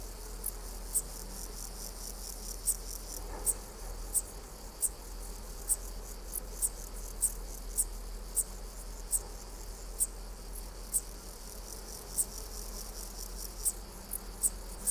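A meadow grasshopper (Chorthippus parallelus) stridulates faintly in the background, a soft, dry high-pitched buzz under a steady series of sharp, evenly spaced insect chirps, with a dark bush-cricket (Pholidoptera griseoaptera) also heard, all outdoors with no voices.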